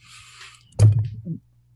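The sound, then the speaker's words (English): A dull, low thump from a female dog, Angel, bumping her head, followed by a short rattling knock and a softer second bump, after a faint hiss; no one speaks. “that's my dog bumping her head on.”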